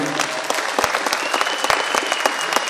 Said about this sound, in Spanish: Un aplauso para todos los HPNelianos que están por aquí.